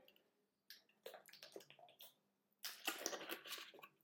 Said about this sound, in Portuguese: Até vou beber água primeiro.